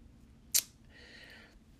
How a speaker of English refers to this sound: kind of uh, shuffling cards.